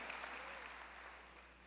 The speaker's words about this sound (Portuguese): Aplauda ao Senhor bem forte.